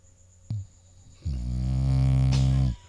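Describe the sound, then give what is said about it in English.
A bully breed dog lets out one long, deep, rattling snore, loud, lasting about a second and a half after a brief low thump. No one speaks. “Bully dogs, so dude. So cute they're allowed with it.”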